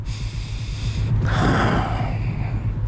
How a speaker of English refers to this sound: Do a, fru- a few breathing exercises